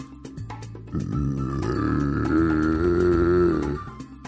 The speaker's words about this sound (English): The growl was low and sounded very angry. What in the world could be growling at Eddie?